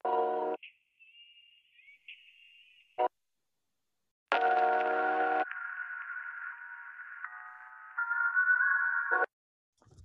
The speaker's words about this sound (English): telephones usually have really ringy um, sound sounds to them in the mid range here in the middle of the frequency spectrum so this preset boosts those so, uh, a bunch so that it has that effect so it's like low quality